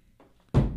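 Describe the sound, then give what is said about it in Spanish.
A mobile phone lands with a single sudden, loud thud, preceded by near silence with only a faint low murmur in the background. “Perdón, ese fue mi celular.”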